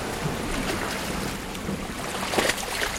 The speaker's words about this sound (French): J'entends le bruit des vagues qui se fracassent contre les falaises. Nous sommes au bord de la côte sud de l'Angleterre.